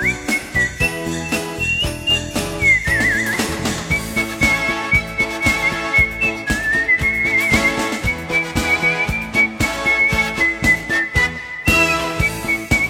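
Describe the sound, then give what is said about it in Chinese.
A whistled song melody, clear and high-pitched, gliding and wavering over a full instrumental backing with a steady beat and bass. No one speaks. “我也是第一次听口哨版呢。沧海说这口哨音乐很有气氛呢。”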